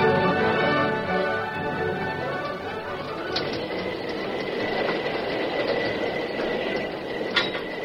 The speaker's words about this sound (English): Inside the cab of the engine, the Lone Ranger, deserted by the fireman and the engineer, worked frantically to bring the fast moving train to a stop before it reached the river and plunged into the void where the bridge had been.